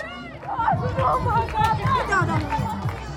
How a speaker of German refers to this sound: Der Fackelträger steckt das Holz in Brand. Flammen lodern auf. Die Kinder jubeln.